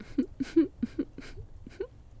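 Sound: voice imitating whimpering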